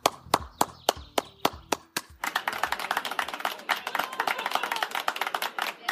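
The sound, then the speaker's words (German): Evening clapping by people in Austria for nursing staff at the start of the Corona pandemic: several slow, separate claps ring out in a steady rhythm, then swell into dense, continuous applause from many people clapping together, with no voices. “Zu Beginn der Corona-Pandemie haben zigtausende Menschen in Österreich für die Leistungen des Pflegepersonals geklatscht.”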